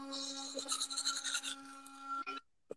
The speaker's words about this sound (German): putzt gerade seine Zähne.